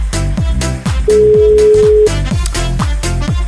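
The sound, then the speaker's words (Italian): A single steady telephone ring tone from an outgoing phone call sounds for about a second, a plain mid-pitched beep over loud, thumping background music with punchy bass drops and drum hits. No one speaks. “Squilla, eh.”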